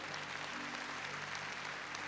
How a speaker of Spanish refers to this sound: A ver, démosle palmas fuertes a nuestro Señor.